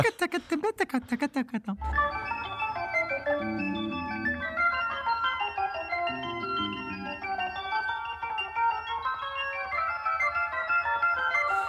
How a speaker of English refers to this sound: Quickly thereafter, it turns into the twinkly the twinkly organ, which okay. is sort of like we've we've stepped off the edge of the world, and we have the I don't even know how to imitate it.